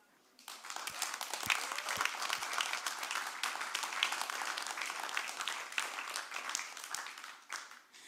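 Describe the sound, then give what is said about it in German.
A crowd bursts into loud, sustained applause for God, a dense wash of many hands clapping that holds steady for several seconds before tapering off near the end. “Hey, für das, für diese Message hat doch Jesus einen riesigen, oder beziehungsweise Gott einen riesigen Applaus verdient.”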